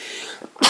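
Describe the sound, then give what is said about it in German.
A single sharp sneeze: a short soft intake of breath, then an abrupt loud, hissing burst that cuts through the quiet background at the end. “Gesundheit.”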